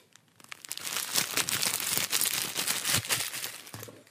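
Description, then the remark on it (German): A person vocally imitates a plastic tissue packet being handled: steady crinkling and crackling, moderately loud, with dense irregular crackles lasting about four seconds and no talking. “angehört mit Wie eine Tüte, wo ich mir mein Tempotaschentuch rausholt, ja?”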